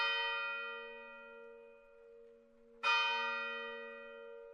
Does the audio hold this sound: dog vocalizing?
no